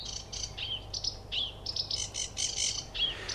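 A sedge warbler sings a rapid, scratchy stream of high chirps, buzzy chatters and brief whistles, varied and continuous, over a low steady hum.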